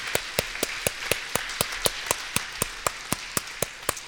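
Steady, even audience clapping to thank Dr. Fowler for joining them: sharp, distinct claps at about four per second, moderately loud, with no voices over it.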